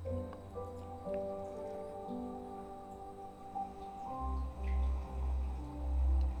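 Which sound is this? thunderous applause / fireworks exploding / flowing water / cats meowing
flowing water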